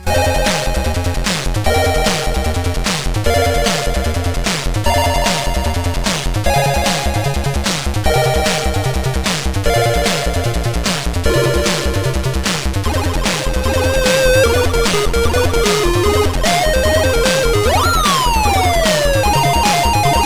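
Fast, loud ZX Spectrum AY chip music from the game Solar Invasion: buzzy square-wave tones with a busy bouncing bassline, steady noisy drum hits and a stepping lead melody, ending with a swooping downward laser-like sweep.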